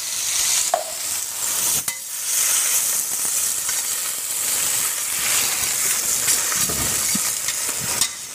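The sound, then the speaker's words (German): Steady, dense sizzling of black kale (Schwarzkohl) frying in a pan, a bright crackling hiss running the whole time with occasional sharper pops and scraping stirs, no voices. “jetzt durchs Braten wird dann natürlich noch mal dunkler”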